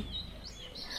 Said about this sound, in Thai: เขาได้ยินเสียงนกร้อง จึงได้เพิ่มเสียงเพลงไว้ในกระเป๋าด้วย